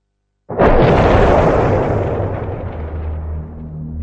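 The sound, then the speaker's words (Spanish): A V1 flying bomb falls on London after running out of fuel and its engine cutting out, then explodes after a brief silence: one sudden, loud blast that rolls into a long, heavy rumble, slowly fading with a low drone underneath. No voices. “Cuando los V1 llegan a la capital, se les ha acabado el combustible y se les apagan los motores.”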